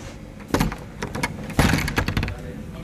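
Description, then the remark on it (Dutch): A heavy door thuds shut, followed by a second solid bang and a quick series of metallic clicks and rattles as the lock is turned and bolted. “Achter slot en grendel.”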